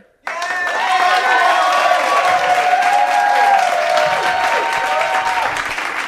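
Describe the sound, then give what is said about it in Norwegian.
A burst of audience applause after a poem reading erupts suddenly and holds steady, dense clapping mixed with cheering voices, loud, lasting several seconds. “Som dere hører, stor suksess på Bala Jesus.”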